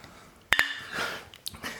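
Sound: glasses clinking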